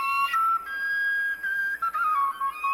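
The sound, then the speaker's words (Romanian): A Romanian shepherd's flute (fluier) plays a short melody of sustained, slightly breathy notes that step and slide between pitches, heard alone and clear with no talking. “Ajunge în Bihor, urcă pe muntele Găina și vorbește în câteva rânduri cu Avram Iancu, pe care îl ascultă cântând din fluierul pe care îl purta totdeauna cu dânsul.”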